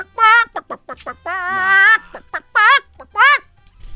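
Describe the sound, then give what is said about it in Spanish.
A voice imitates a chicken that wandered up to the Pentagon, giving a series of loud, wavering clucks and drawn-out squawks in irregular bursts, with short pauses between them. “una gallina no saben de dónde cruzó y llegó al Pentágono”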